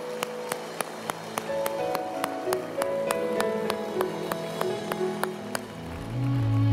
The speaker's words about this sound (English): Come on, church, give Jesus a good hand clap of praise.